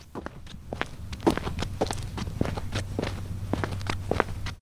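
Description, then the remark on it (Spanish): Steady footsteps approach a chair, a series of sharp, regular thuds over a low constant hum, with no voices. “Los mismos pasos del día anterior se aproximaron a la silla, trayendo la voz, húmeda, hasta pegarla a su oído.”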